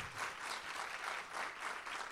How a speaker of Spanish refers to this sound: Vamos, si se le va, le va a dar un aplauso al Señor, déselo bien.